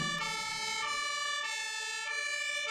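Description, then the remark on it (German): A loud, steady electronic fire alarm siren blares continuously in a large department store, its bright harmonic tones dipping and rising slightly in a repeating pattern, with no voices. “Ich hatte noch nicht den ersten Bissen genommen, als plötzlich ein Feueralarm losging.”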